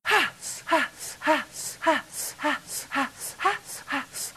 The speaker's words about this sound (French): Ça, par exemple, ce n'était pas de la marijuana, c'était de la respiration orgasmique.